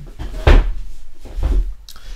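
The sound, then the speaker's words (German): A chair is shifted and adjusted, giving two heavy thuds with scraping about a second apart, low and fairly loud, with a faint bump at the end and no talking. “Ich muss erstmal meinen Stuhl zurechtrücken.”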